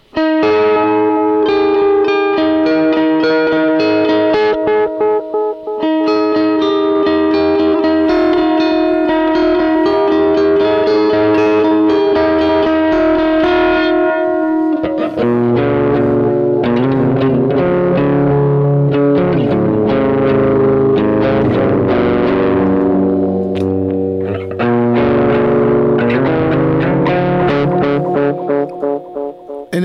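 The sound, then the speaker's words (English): An electric guitar plays through a Wells analog delay pedal with tap tempo, its notes ringing and repeating into one another in a loud, continuous, effects-heavy passage with no talking. “So this actually is a really cool delay because it's an analog delay with a tap tempo, and it has a really neat sound.”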